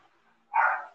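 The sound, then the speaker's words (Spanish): A single sharp dog bark rings out after a moment of near silence. It is fairly loud, with a short tail as it fades. “No puedes coger otra hora para ladrar la odia peja estas.”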